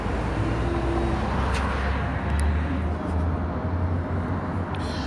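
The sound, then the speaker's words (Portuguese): Steady roar of street traffic, with many cars and a bus rumbling past continuously and a low engine drone swelling midway, no voices heard. “Nossa, cheio de carro. Ônibus.”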